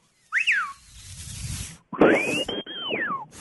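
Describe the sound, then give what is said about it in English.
A loud, shrill whistle through the teeth, the lip sliding back and forth on the teeth to adjust the tone: a quick rising-and-falling chirp, a brief pause, then a longer high note that arches up, holds briefly and slides back down. “sliding on your teeth back and forth that adjusts your tone in your whistle.”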